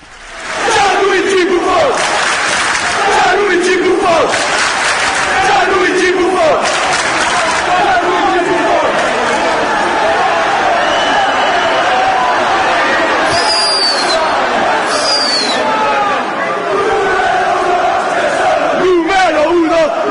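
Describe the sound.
A large crowd of football fans chants and sings in unison, a dense roar of many voices rising and falling in rhythmic waves, with a few sharp whistles cutting through partway.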